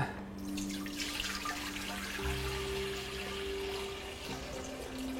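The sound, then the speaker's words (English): Water is poured around a Klein bottle stuck down in a vessel. It runs steadily for several seconds, a continuous splashing flow with a rising tonal hum as the container fills, moderately loud, with no voices. “And I'm going to pour some water around it.”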